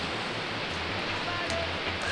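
A steady, hissing wash of ocean surf from a record of sea sounds fills the short stretch, broad and unbroken without distinct wave crashes, with no voices.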